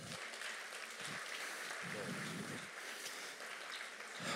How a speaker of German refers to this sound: Ein Applaus